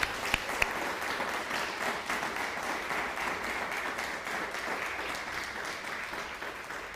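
A crowd breaks into sustained applause, a dense steady wash of many hands clapping at even loudness for several seconds, with no voices standing out.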